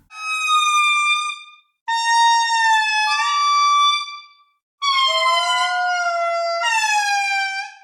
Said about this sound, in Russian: Индри – это крупные животные с очень мощным голосом. Пение объединяет группы, определяет всю жизнь в парах, отношения между группами.